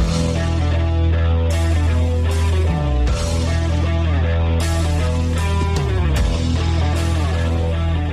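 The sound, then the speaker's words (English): An upbeat, energetic music tune plays loudly and steadily, with a driving bass line, layered melodic synths and quick sweeping transitions, and no voices over it. “I think I'm going to actually play that tune on the off season just to get me keen for the next year.”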